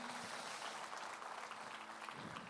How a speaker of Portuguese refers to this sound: Dê uma salva de palmas a Jesus aí, bem forte.